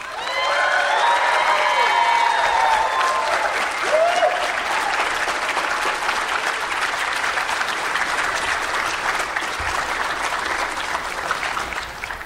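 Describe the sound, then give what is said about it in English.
An audience claps loudly and steadily for about twelve seconds as Jeremy Bulloch is introduced to speak, a dense patter of many hands, with a few whoops and cheers rising over it early on before the clapping carries on alone. “So please give him a warm round of applause.”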